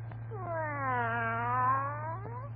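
A cat lets out one long, drawn-out yowl lasting about two seconds, its pitch rising and bending as it wails, heard close up over a steady low electrical hum.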